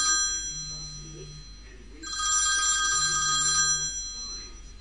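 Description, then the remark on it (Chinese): A telephone rings with a steady electronic tone, its bright buzzing ring swelling louder partway through over a faint low hum, with no talking. “这时，哥们王岩打了电话过来。”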